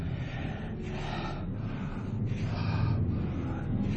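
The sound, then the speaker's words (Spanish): Heavy, rapid, agitated breathing of a large animal, each rough, snorting breath loud in a steady rhythm, about five or six breaths over a low, rumbling, windy background. “Podía oír la respiración agitada del animal y aunque me sentía sobrecogido de terror, me di cuenta de que venía de muy lejos.”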